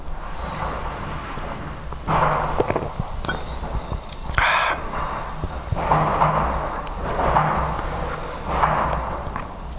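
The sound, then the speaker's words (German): Muffled fireworks bangs and crackles from outside, going on for 17 minutes, heard through closed windows, arriving in irregular bursts every couple of seconds over a low background rumble, with no talking. “Ja, 17 Minuten lang knallen die alle schon.”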